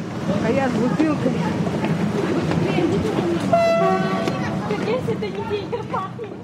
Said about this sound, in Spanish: ¿Y eso que estamos escuchando es otro tren también? Sí, es un tren que llega directamente a Polonia desde Ucrania, ¿no?